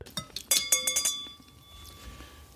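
A woman rises and lightly taps a knife against a wine glass held in her hand in a quick series of light, bright clinks, then the glass's clear ringing tone hangs and fades into quiet.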